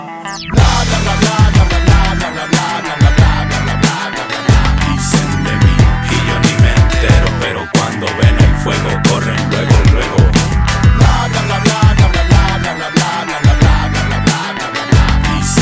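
A recorded song played on air on a MixLR stream, loud and continuous, with a driving beat, heavy bass and sharp drum hits repeating steadily under a dense full mix. No one talks over it.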